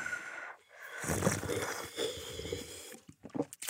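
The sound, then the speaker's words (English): Someone sips tea from a nearly empty cup: a dry, airy slurp draws in mostly air for about two seconds, then fades into a few soft mouth sounds. “Let's sip tea together.”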